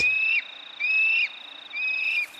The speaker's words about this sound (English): The call and response of kiwi as they emerge for the night.